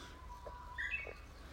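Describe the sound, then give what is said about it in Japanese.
A Japanese bush warbler gives a short, bright whistled phrase in the morning, early in its singing season, brief and fairly faint over a low steady outdoor rumble, with no one speaking. “ウグイスが本気すぎません声がこえてますかねウグイスガもいろいろ入っちゃってると思いますけど”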